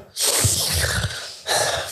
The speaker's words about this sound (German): Ähm, ich schnaufe immer so ein Mikrofon.